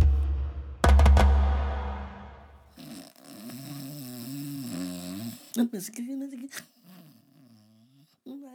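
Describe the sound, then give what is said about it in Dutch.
A man snores loudly while asleep, a couple of deep rasping breaths in the first few seconds, followed by a person talking. “Oh, Jeetje, wat snuk die gozer man.”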